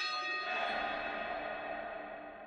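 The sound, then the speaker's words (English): Church bells ringing out across Jerusalem during a funeral as the deceased is moved to the cemetery, their resonant metallic tones overlapping in a sustained wash that slowly fades, with no voices. “Church bells rang out across Jerusalem as she was moved to the cemetery and laid to rest.”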